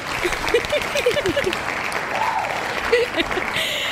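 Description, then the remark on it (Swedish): A short burst of light applause from a small group, dense patter of claps lasting a few seconds, with some voices and a brief laugh mixed in underneath. “Så alltså, en liten applåd på det ja.”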